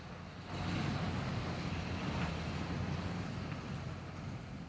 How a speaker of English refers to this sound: Once all the supplies are loaded and the vehicles gassed up, their powerful engines rumble to life, and the fleet rolls out, heading due south.